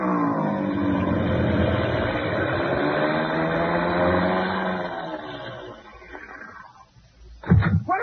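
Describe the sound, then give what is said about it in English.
A loud, droning airplane engine with strong harmonic tones holds steady, then winds down and fades as the plane comes in fast to land with its engine acting up, followed by a few bumpy thuds near the end as if touching down. “Well, we'll know in a minute because he's coming in fast.”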